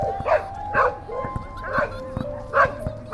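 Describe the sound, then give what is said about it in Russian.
Dogs bark in a string of short, sharp yaps at irregular intervals, moderately loud, with a thin whining tone running steadily underneath. “Первые истории связаны с собаками, которые жили на холме неподалеку от этого двора, которых называли «злая стая», потому что эти собаки часто кусали людей, которые, ну, ничего этим собакам не сделали, они просто кидались на всех.”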